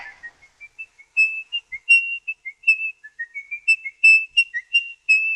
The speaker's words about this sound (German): Die andere Manie des Verdächtigen. Sein häufiges Pfeifen. Nervös, wenig perfekt, immer wieder abgebrochen.